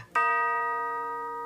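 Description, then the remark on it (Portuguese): A clock strikes midnight: a single sharp strike, then a rich, bell-like tone that fades only slowly. No voices accompany it. “De repente, o relógio começou a bater.”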